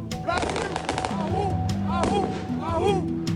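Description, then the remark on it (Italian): Fireworks explode in a quick cluster of sharp cracks and pops near the start, then thin out, while voices shout and call out throughout. “Per esempio loro sono quelli che hanno sparato fuochi d'artificio dentro le finestre degli uffici dei magistrati della Corte Suprema.”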